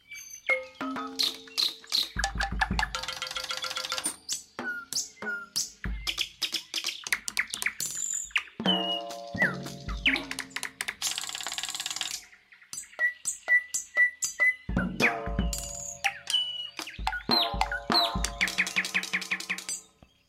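Lively birdsong with rapid chirps, trills and whistled notes tumbling one after another, bright, filling the whole stretch with no voices.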